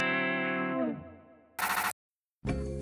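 A short, heavily processed jingle: a distorted, effect-laden chord rings out and fades, then two loud, harsh bursts of sound cut in, separated by a brief silence.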